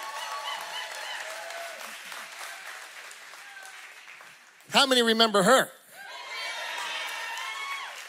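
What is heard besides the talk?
audience applause and cheering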